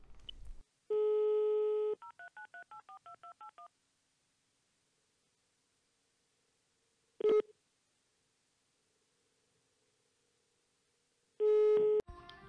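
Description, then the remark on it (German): A steady telephone dial tone gives way to a quick run of about eight DTMF keypad beeps as someone places a phone call, then silence, a click, and a ringing tone starting near the end. Clear, no voices. “Nee, den, äh, den können wir jetzt mal anrufen, was der so treibt.”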